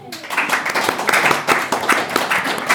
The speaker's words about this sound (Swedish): Då känner vi publiken Ja, nu, fantastiskt. Vilken publik. Ja. Ge dig själva en applåd.